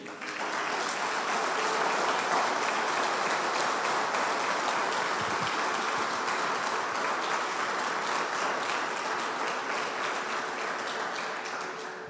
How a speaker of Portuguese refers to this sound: Então vamos aplaudir a Jesus porque ele é digno.